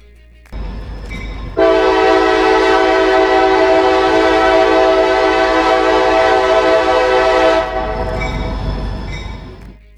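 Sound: train horn blaring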